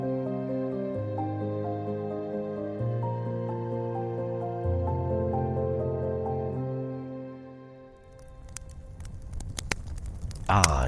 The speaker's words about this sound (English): You hear that? The sound of a crackling fire. But this isn't just any old campfire. This is a smokeless solo stove fire pit.